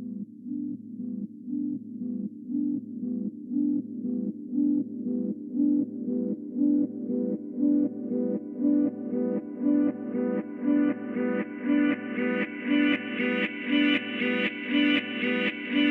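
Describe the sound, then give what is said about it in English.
Reversed guitar notes swell in one after another in a steady rhythm, each fading up and snapping off abruptly, the tone growing brighter and fuller as it continues, with no voices. “i think the reverse guitar sound that i put at the beginning sort of imbues that same spirit”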